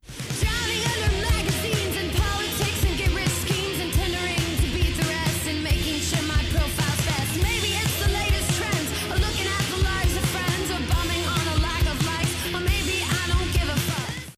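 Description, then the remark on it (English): A loud, dense rock song plays continuously, with reverberating guitar chords washing over a busy, driving drum pattern and a vocal line on top, steady and full throughout. “It's got reverberating guitar chords, a wonderfully nervous drum pattern, and an anthemic vocal line.”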